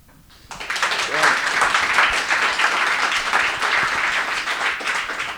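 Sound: audience applause welcoming guest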